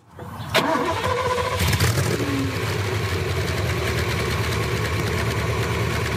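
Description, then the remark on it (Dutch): A Ferrari 308 GT4 engine catches with a sharp start, then settles into a steady, loud idle with a low, rumbling burble and faint mechanical ticking, with no voices. “Is dat precies die Ferrari, hè? Lekker pruttelend.”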